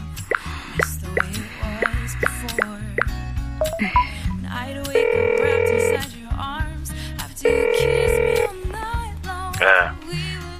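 A telephone rings on the line as a call is placed: two steady buzzing tones, each about a second long with a pause between, preceded by a string of short plinking key presses over soft background music.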